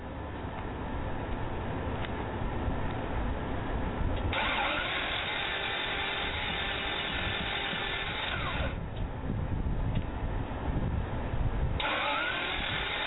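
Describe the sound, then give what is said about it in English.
A car engine cranks repeatedly and struggles to catch, with grinding starter bursts that surge and drop in several attempts, loud, with no talking. “If your car is sounding like this, it sounds like you might be in trouble.”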